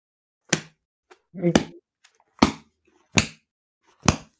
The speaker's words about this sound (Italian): prendi un libro, aprilo a caso e sbattilo.